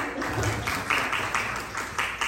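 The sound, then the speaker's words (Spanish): Many people applauding steadily, the dense patter of many hands clapping together, fairly loud and continuous with no talking. “Vamos a dar un aplauso”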